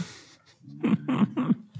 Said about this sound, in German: hat sie gerade im Hintergrund äh, gestreckt und gegähnt.